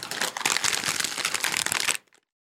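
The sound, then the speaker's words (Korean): A sound effect of a letter being opened: about two seconds of dense, crackling paper rustle and tearing, loud and continuous, then it cuts off abruptly. No one speaks. “이건 제가 자체적으로 지금 사운드 어펙트를 넣은 거예요. 편지를 여는 모습.”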